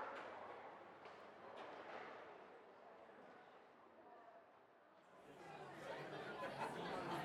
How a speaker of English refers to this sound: I'm always aware of other humans in the pub and their noises, and the way that their noise combines with the data exchange.